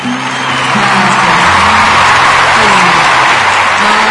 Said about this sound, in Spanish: Una ovación. ¿ah? Sigan aplaudiendo.